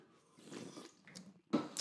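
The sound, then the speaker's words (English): Wet mouth sounds of someone taking a sip from an energy drink, a short slurp followed by a swallow and a couple of sharper smacking bursts near the end, with no talking. “I gotta take a, take a sip of this energy drink.”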